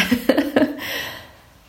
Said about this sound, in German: Und jetzt muss ich mich gleich mal räuspern